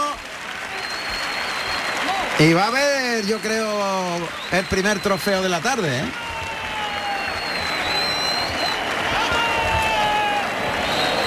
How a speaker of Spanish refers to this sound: Se va a echar, el toro se desploma sin puntilla, se cae sobre el costillar derecho el toro, que ha tardado poquísimo en caer Pablo Hermoso que se va en carrerilla hacia el centro del ruedo con los brazos arriba, recibiendo la ovación del público.